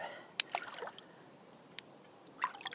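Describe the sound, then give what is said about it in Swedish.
Splashing and sloshing as a person lowers themselves down a ladder into cold water of 8 degrees, a few sharp splashes at the start and again near the end with quieter dripping between. No one speaks. “Men jag ska i vattnet nu.”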